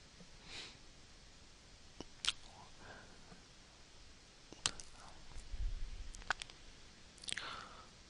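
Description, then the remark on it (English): A few sharp, isolated computer mouse clicks, made while clicking a reviews link on a freelancer listing, spaced irregularly a second or two apart, fairly quiet against faint background noise and soft breathing, with no talking. “let's let me see I'm going to look at the reviews just clicking near the 41 reviews link”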